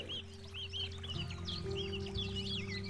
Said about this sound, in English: I may not be outside in the woods today, but I am sitting on my back deck, thoroughly enjoying the beautiful weather and listening to the birds chirping, saying cheeseburger, and loving that I get to live someplace that is so close